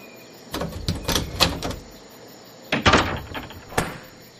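A metal door bolt rattles and clacks as it is drawn back and someone enters a house, then the house door is quickly swung shut with a solid thud, followed by a few quick clicks as the bolt slides home. Fairly loud, no voices.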